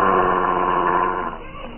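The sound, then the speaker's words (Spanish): A huge mastiff's low, rough growl rumbles steadily in the fog for about a second, then weakens and trails off toward the end. No voices are heard. “El enorme mastín obedece la orden y se echa a los pies del varón en actitud temerosa.”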